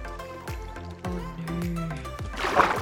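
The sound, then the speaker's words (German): Minecraft water splashing as something falls into the water, over a steady layer of game music with low thumping notes, building to a brighter, noisier splash near the end. No one speaks. “Jetzt ist das erstmal ins Wasser gefallen, weil er schwimmt anscheinend nicht, der Rest aber schon.”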